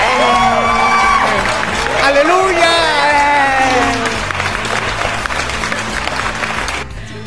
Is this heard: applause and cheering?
yes